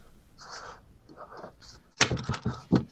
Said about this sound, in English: Just just opening my window. Bear with me. It's hot tonight.